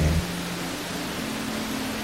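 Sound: rain falling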